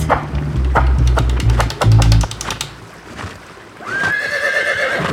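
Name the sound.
horse neighing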